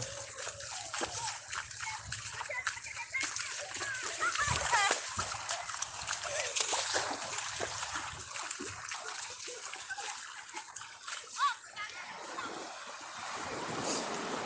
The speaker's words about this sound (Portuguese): Eu não sei se deu pra ouvir alguma coisa que eu falei, né? Porque o o som do mar ele é tão alto, ele preenche tanto assim o ambiente, eu não sei, cara, que ele acaba se tornando um novo silêncio, né? Mas é um silêncio repleto de detalhes.